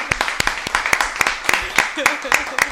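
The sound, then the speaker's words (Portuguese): Steady, rhythmic hand clapping in applause, about ten sharp claps in under three seconds, fairly loud, with voices and a little laughter mixed underneath. “Uma de palmas sua mãe.”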